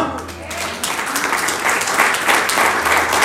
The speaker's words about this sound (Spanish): ¿Alguien puede aplaudir al Señor?